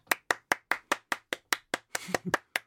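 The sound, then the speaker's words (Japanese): Steady, rhythmic hand clapping, about a dozen sharp claps in quick even succession, with a brief voice murmuring underneath near the end. “そうそうみんな拍手してるねやっぱねこのコーナーになるとね”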